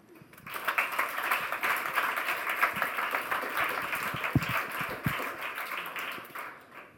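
An audience at a reading applauds a reader being introduced, a dense wash of many hands clapping that swells quickly, holds at an even level, then tapers off toward the end.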